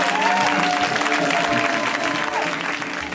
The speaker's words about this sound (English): Well, friends, let's keep the show rolling. We've got two comics left, and both of them are great, uh, including this friend of the show who is always hilarious. Let's hear it right now for Charla Lauriston. Give it up for her.